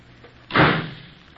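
A side door slams shut as a boy comes home from school, one sharp, loud impact and a short rumbling decay, then it falls back to quiet. No one speaks.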